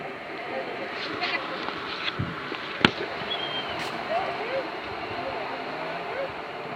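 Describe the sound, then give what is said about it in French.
Distant small ocean waves wash steadily against mussel-covered rocks on the coast of Brittany, a constant surf hiss with one sharp knock partway through and a few faint, high chirps above it. “des petites vagues, comme celle que vous entendez au loin, puisque je suis assise sur des rochers pleins de moules à côté de l'océan de Bretagne, la Grande Mer Sauvage.”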